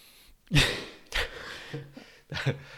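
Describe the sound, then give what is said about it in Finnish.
A person sniffs whisky with the mouth open: three audible breathy inhalations through the nose and open mouth, moderately loud, separated by short pauses, with a faint murmured voice between them. “Mä kuulin, että kun viski pitää haistaa, niin pitää olla suu auki.”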